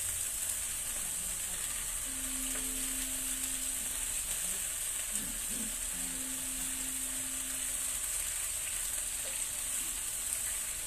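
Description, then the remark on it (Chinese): Already-cooked cauliflower, moved to the side of a frying pan, warms with a steady, gentle sizzle and faint crackle throughout, plus a low hum in the background; no one speaks. “那我们花椰菜呢，就把它放到旁边来，稍微把它预热就好了，因为这花椰菜本来就是熟的。”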